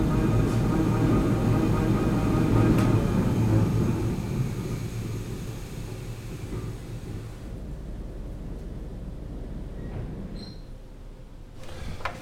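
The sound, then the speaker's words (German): Heavy mill machinery roars with a dense low rumble and steady mechanical hum, then winds down after a few seconds as all the machines are switched off together with a main switch, the noise thinning and fading to a quieter residual drone. “So, okay mehr oder weniger kann ich mit einem Hauptschalter alle Maschinen gleichzeitig ausschalten und dann steht die Mühle.”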